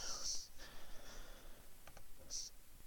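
A few quick, soft computer mouse clicks in close succession, quiet, as someone clicks between tabs, with faint breathy hissing sounds before and after them.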